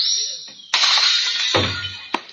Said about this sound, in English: don't pull that tablecloth. You'll smash all those dishes. Oh, no, I won't. Oh, yes, you will.